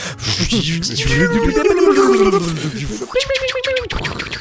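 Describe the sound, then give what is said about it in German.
A voice imitates a time machine effect, making a warbling, wavering hum that slides up and down in pitch for a few seconds and then ends in a short, buzzy, steady tone. “Zeitmaschinen-Soundeffekt bitte.”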